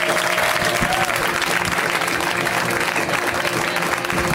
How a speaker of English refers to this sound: Thank you so much. Give it up one more time.